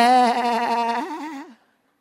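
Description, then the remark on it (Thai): A group of people bleat together like sheep, imitating lambs, one sustained wavering "baa" lasting about a second and a half, fairly loud, ending in a wobbly vibrato before cutting off. “ใครบอกว่าแบถ้าบอกว่าเราเป็นลูกแกะแบ”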